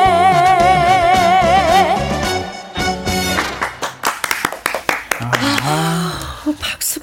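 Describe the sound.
A sung phrase with wavering vibrato fades out, followed by a short burst of scattered, uneven audience clapping for a couple of seconds before people start talking.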